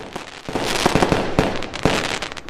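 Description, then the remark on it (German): Fireworks rockets and firecrackers shot into the air on New Year's Eve explode in a dense, continuous barrage, with sharp loud bangs standing out over a steady crackling roar, relentless with no pauses. “Raketen, Böller und Feuerwerkskörper werden in die Luft geschossen.”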